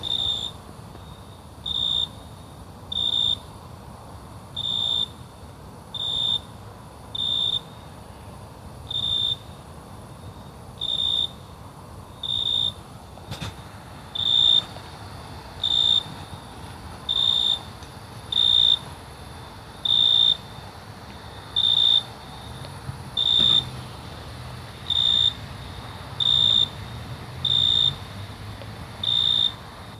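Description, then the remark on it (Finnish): Crickets chirp in a yard in a steady, regular pulse of high, bright trills, each burst evenly spaced, repeating for the whole stretch over a low, quiet background hum. No one speaks. “sirklat omassa pihassa.”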